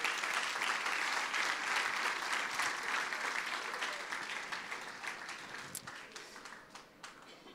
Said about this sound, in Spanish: Pueden darle un gran aplauso al Señor por lo que Él está haciendo.